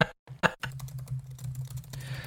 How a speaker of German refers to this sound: Ich höre dich richtig tippen. Tipp, tipp, tipp, tipp, tipp, also, tipp, tipp, tipp.